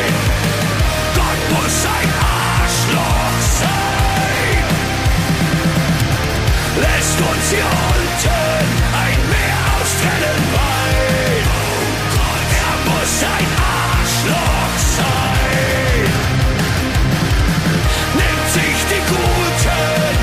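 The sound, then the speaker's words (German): A full song plays continuously at steady, loud volume, with dense instrumentation, a driving beat and what sounds like sung vocals throughout. “Okay, Lieben, der Song kommt, danach geht's weiter.”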